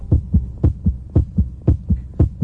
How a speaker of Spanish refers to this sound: pero en el 95, como decimos, tres años después, empezó a latir un corazón muy peculiar.